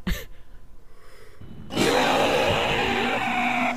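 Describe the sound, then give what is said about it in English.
A person imitates an owlbear's bellow: soft rhythmic breathy pulses, then a sudden loud, raspy roar held for about two seconds. “it bellows, and the whole uh, the room shakes”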